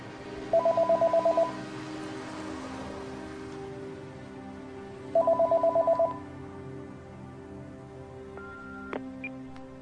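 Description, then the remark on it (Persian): A mobile phone rings unanswered in two bursts of rapid, trilling pulses, each lasting about a second, separated by a pause, over a steady background hum with faint rain-like noise and a small click near the end. “پس چرا گوشی رو جواب نمیدی”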